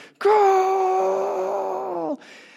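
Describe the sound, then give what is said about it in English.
A single voice lets out a loud, sustained, open-mouthed cry for about two seconds, imitating a whole city's crowd erupting as Costa Rica scores first in a game at about 2:30 in the morning, holding steady before dropping off abruptly. “And suddenly, you could hear the whole city erupting together in,”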